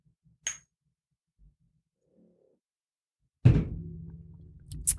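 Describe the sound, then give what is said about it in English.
Shot glasses clink together once in a toast, a short bright chime near the start, followed a few seconds later by a louder, heavier thunk with a low lingering rumble. “And this shot is for you guys. So cheers, bitches.”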